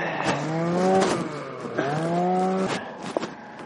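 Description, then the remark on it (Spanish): A van engine runs with a steady droning hum that swells and eases twice, like two gentle revs, with scraping noises mixed in. “Tienes la música puesta y la furgoneta arrancada.”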